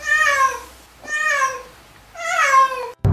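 cat meowing

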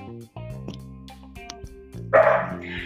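small dogs barking

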